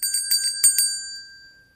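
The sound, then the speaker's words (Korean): A bright ding-dong chime sound effect: about six quick metallic strikes in a lively run, then a clear ringing tone fading out over the final second, with no voices. “Do you like 딩동댕? 이걸로 한번 만들어 보세요.”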